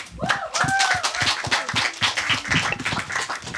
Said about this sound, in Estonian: seega, kes iganes teine on, võib asuda lavale ja me võime siis aplausiga neid sinna saata